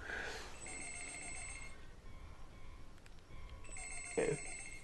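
A telephone rings in two electronic bursts separated by a short pause, over a steady background hiss.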